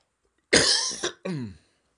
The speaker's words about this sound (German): Jetzt bin ich ganz Corona-frei, aber huste jetzt hier im Podcast noch ein bisschen was vor. Und habe in der ganzen Corona-Zeit eigentlich gar nicht gehustet.